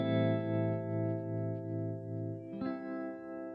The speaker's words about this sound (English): So if I switch my guitar to the uh, the fourth position, so that's using both the neck and the middle pickup, and I turn on that tremolo, you get a real soulful. sound that, that really works well with with playing these sorts of chords.